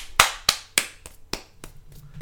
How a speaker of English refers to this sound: You know when you clap and you kind of cup your hands, you'll either get like the perfect sort of, or if you're if you're just off a little bit, it just kind of goes. No, see, because I clap like I'm a seal, like